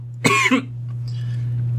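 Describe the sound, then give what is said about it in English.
A single harsh cough bursts out from a person who choked on coffee while trying to slurp it, followed by a quieter sputter, then only low hum and faint room noise remain. “I tried to slurp so that I could do a You May Be Wondering Why I'm Slurping, which is only funny to me. And then I just choked.”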